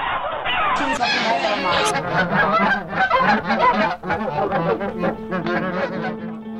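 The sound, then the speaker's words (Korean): Geese honk loudly and frantically as a man plucks their feathers while they are alive, for down used in padded jackets and coats; harsh overlapping cries repeat rapidly for several seconds, with a low steady drone running underneath. “인간이 입는 패딩과 코트를 위해서 산채로 털이 뽑히는 동물들의 절규 소리로 들려드렸습니다.”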